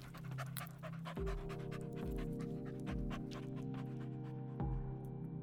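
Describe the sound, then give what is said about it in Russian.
A dog pants and sniffs in quick, rhythmic breaths and snuffles as it sniffs at a person's leg, heard over a steady low hum that continues underneath throughout. No one speaks. “Пес подбежал к моей ноге и с пристрастием обнюхал меня.”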